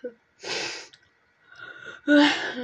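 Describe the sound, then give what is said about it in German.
A person fakes crying while playing a video game, with three exaggerated, breathy sobbing bursts, the last one louder with a wavering voiced wail, separated by short pauses. “Ja, okay, ich höre auf zu heulen. Das hört sich einfach viel zu künstlich an.”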